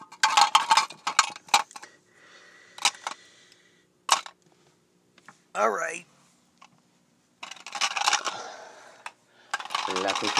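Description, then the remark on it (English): Pencils, markers and pens dropped behind a desk clatter in irregular bursts of sharp, bright clicks and rattles, with quiet gaps between, and a short sung voice wavering in the middle. “Pencils, markers, and some pens.”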